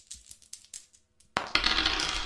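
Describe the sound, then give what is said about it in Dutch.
A die rattles and clicks in a quick, uneven series of light taps, then clatters loudly across a hard tabletop in a sustained rolling rumble, with no voices. “Nou, jij mag dobbelen nu.”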